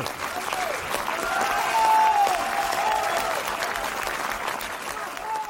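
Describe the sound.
Steady applause from a crowd for the minstrels who have just finished their piece, a dense continuous patter of many hands clapping for several seconds, with faint voices and a brief whistle-like tone mixed in.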